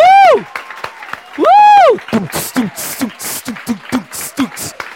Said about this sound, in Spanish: Y por eso yo te voy a pedir que te ponga de pie ahora mismo, por favor. Y démosle un aplauso fuerte al Señor, celebrando. Y pito, bulla, lo que sea.